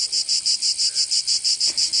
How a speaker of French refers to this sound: Ça y est, les cigales euh, se sont mises à chanter, ou plutôt à symboliser puisque sachez-le, euh, la cigale ne chante pas, elle symbolise Le bruit qui vient euh, de, ses ailes et pas de sa bouche